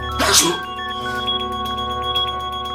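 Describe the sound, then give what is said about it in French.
A single sharp, loud sneeze bursts out near the start, followed by a steady tonal hum and soft music-like tones continuing underneath. “La grippe se transmet par les postillons, la toux, les éternuements qui contiennent des milliers de virus.”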